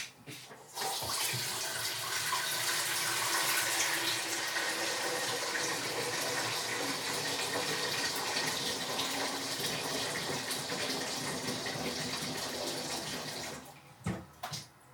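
Water runs steadily from a tap into a large pot for about thirteen seconds, filling it with about 2 litres of water, a fairly loud rushing stream that cuts off abruptly near the end.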